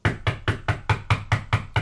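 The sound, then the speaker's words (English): A rapid, steady series of about nine firm knocks on the door of a house, evenly spaced with a solid low thud to each, fairly loud with no voices. “he comes over to my house a few months ago and he knocks on my door first of all i fucking hate it when people knock on my door if I'm not expecting you, if you haven't told me that you're coming over, and I just hear a random,”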